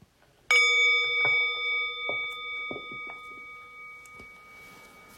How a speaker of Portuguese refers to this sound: Eu vou convidar o sino a soar daqui a pouquinho.